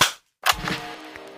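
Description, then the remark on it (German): Two sharp, loud hand claps separated by a brief silence; the second leaves a lingering, ringing tail behind it. No one speaks. “Wir klatschen nochmal. Drei, zwei, eins.”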